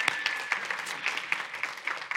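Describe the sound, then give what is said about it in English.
A church conference audience claps steadily for the worship team for a couple of seconds, a dense patter of overlapping hand claps with a few sharper, brighter claps standing out. “Yeah, so give them a little clap real quick.”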